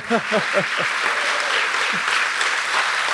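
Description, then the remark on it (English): Sustained applause from a sizable audience welcoming Marta Kauffman as she comes up the stairs, a dense steady wash of clapping, with a few brief voices calling out near the start and again partway through. “so i am thrilled to get this opportunity to talk to marta kauffman please welcome her You're going to have to clap for a while.”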